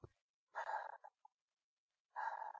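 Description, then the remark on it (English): A person imitates the heavy, breathy panting from the middle of a song, two long raspy exhalations separated by a short pause and a small catch of breath, fairly loud with no words. “I'm like, what the fuck is this nigga breathing on the track?”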